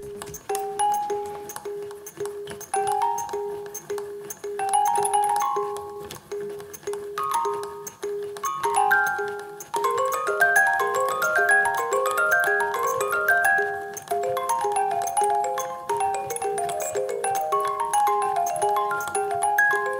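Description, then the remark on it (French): Music box notes play a data sonification of the Covid epidemic: a steady repeating tone, representing one day, pulses throughout while higher plinking notes, representing that day's number of Covid victims, grow denser and busier after the first half, with no voices. “une visualisation qui s'écoute sous la forme d'une boîte à musique”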